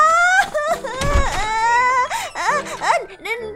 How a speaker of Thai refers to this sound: เด็กชายคนหนึ่งได้ถูกน้ำของต้นตำยาตำเข้าที่นิ้วมืออย่างจัง เด็กชายร้องไห้ด้วยความเจ็บปวด